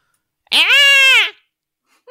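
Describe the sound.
A person vocally imitates a cat's high, squeaky cry like a squeak toy, a single strained nasal squeal lasting under a second, followed by a tiny faint blip after a pause.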